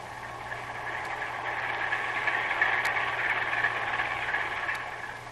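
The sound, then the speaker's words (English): A steady, muffled churning drone of a ship's heavy engines and two propellers, holding constant with a low hum underneath and faint periodic ticks, with no voices. “It must be the one, Herr Captain. Heavy engines and two propellers.”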